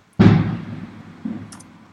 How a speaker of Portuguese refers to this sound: Gente, isso foi antes? Foi um tiro? Não, foi, foi Rojão? Foi aqui. O Rojão foi aqui.